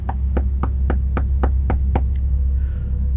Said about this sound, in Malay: dan ceritanya disambung dia tengah baring dekat atas katil sedang menonton TV tiba-tiba ada orang ketuk pintu bilik hotel